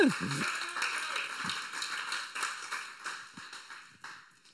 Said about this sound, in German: Ich finde es einfach genial und ja, mega cool, dass wir wieder live Musik machen dürfen. Vielen Dank dafür. Ja, ist ein Applaus wert, oder?